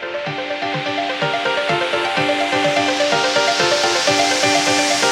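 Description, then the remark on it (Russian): A filtered white-noise sweep, made by a low-pass filter opening, closing and sliding over the noise spectrum as an effect in an electronic dance track, swells gradually like a rolling wave, layered over a steady beat with a thumping kick and sustained synth chords; no one speaks. “Да, тут используется это как эффект, то есть, по сути, у нас low-pass фильтр открывается, закрывается, скользит, как вот я говорил, по спектру шума”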